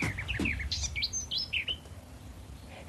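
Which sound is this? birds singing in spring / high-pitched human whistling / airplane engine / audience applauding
birds singing in spring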